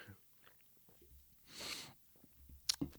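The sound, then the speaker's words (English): A quiet sip from a drink, a brief airy slurp in the middle, followed by a couple of small clicks and a swallow. There's no talking. “I'm going to take one more one more sip.”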